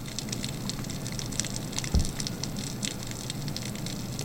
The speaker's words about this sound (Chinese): 中研院学者陈昭伦带来大潭电厂 G Two 这个位置所收到的海底声音，听听看是不是跟北方三岛很类似呢？